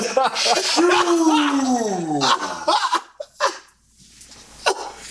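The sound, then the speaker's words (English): A voice mimics a wet, spluttering sneeze, a strained, wavering vocal buildup followed by short, noisy bursts of breath, loud, with no other talking. “And this bitch wet sneezed like it was just like.”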